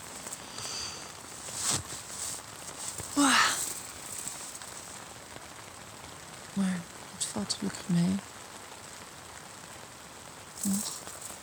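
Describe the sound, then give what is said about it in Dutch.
Rain falls on a tent roof as a steady, soft hiss, broken by a handful of louder, sharper drops and taps landing at irregular moments. “Dus als er eh, flink geregend wordt op het dak, dan op een gegeven moment door de kracht op het, op tentcel druppelt er condens op mij.”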